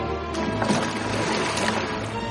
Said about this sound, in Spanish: rema con fuerza en una barca.